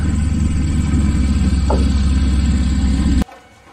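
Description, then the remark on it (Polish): A car engine, approaching from the distance, rumbles steadily and fairly loud, a constant low idling drone, then cuts off abruptly near the end, leaving quiet background. “Słyszycie w oddali znowu silnik samochodu, który się zbliża.”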